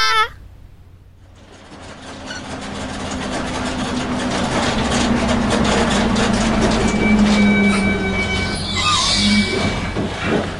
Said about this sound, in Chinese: 探险队搭了好久好久的巴士，才来到台中的桃山部落。